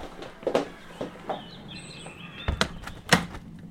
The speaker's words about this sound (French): On entend les oiseaux